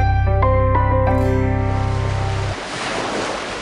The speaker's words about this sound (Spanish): El mar estaba muy picado hacia varios días.